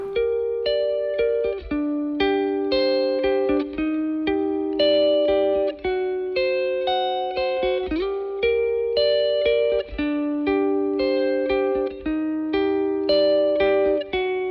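The instrumental opening of a rap song plays: a looping, effects-heavy melodic riff over a steady beat, sustained tones cycling in a regular pattern. No vocals are present yet.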